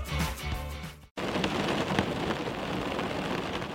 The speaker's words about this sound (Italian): Quanto è bello essere in macchina e sentire il ticchettio della pioggia sul parabrezza. È rilassante l'acqua che si accumula sul vetro. E poi, con un colpo d'ala, via, sparita.